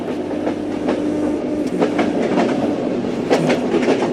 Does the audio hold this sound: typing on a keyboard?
no